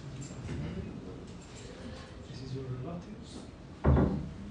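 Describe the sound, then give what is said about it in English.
A door thumps shut with a single sharp knock near the end, cutting through a murmur of background voices and room chatter. “Have we got a door open over there that everyone's?”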